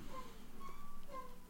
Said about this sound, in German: Was quietscht denn hier die ganze Zeit so? Das ist mein Stuhl.